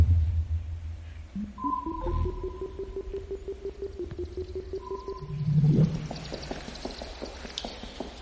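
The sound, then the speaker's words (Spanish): A video game radar sonar, heard as the player's character walks near the radar by the water, sounds a steady electronic hum with short higher beeps layered over it, alongside low rumbling and a brief bubbling, watery burst near the end. Nobody speaks. “me acerqué mucho al, al, al sonar del radar y, bueno, salí”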